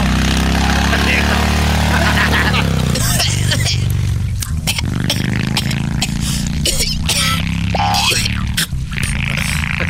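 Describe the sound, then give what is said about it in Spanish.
A loud, steady engine drone with a low rumbling hum, like a small propeller plane running, with clattering and scraping noises breaking through partway. “Y de ahí va a agarrar una avioneta y hasta Sinaloa.”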